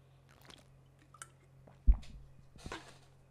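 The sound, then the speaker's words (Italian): Someone drinks purified water from a small carton: soft wet sips and swallowing sounds, a dull thump as the carton is handled, then a couple more gulps, with no talking. “Bevo in diretta, ragazzi. Il mio bricchetto di acqua depurata.”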